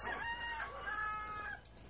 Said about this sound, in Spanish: Recordarán que en algún momento les dije que, que algunos de nuestros podcasts los íbamos a hacer al aire libre, por ello el ruido de pájaros, de pollos.